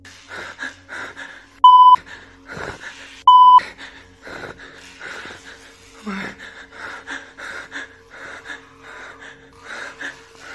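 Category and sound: sound effect, censor bleeps over profanity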